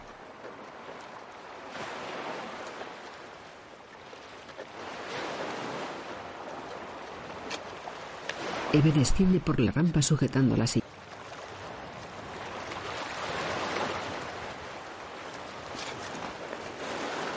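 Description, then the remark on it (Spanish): Sea waves wash in and out against a ramp that runs down into the sea, in steady, broad swells every few seconds, while a voice speaks briefly over them in the middle. “Se acercan a una rampa que desemboca en el mar.”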